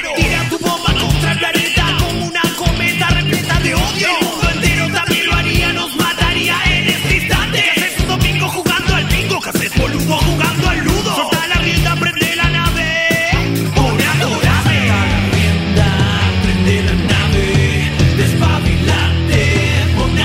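A short rock band jingle plays loud on the Rock and Pop radio station's night show, with steady pounding drums under dense, full-band instrumentation that runs continuously for about twenty seconds. No one speaks over it.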